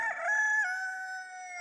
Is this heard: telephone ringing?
no